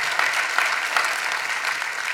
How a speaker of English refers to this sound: We have to recognize, and I do wish so much that you would clap when I say this.